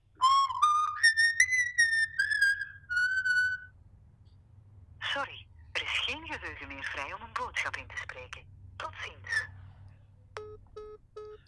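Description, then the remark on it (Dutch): A whistled melody on a phone voicemail, thin and tinny as it plays through a phone's speaker, sliding upward over a few seconds, then a voice speaks and three short electronic beeps close it out. “mensen hebben dat telefoonnummer van tevoren al gebeld en hebben dat fluiten al gehoord”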